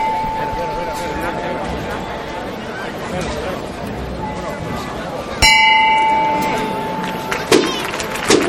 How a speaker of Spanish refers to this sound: ese solo de la campana del Cristo de la Buena Muerte.